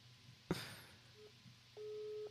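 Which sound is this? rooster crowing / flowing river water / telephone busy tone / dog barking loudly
telephone busy tone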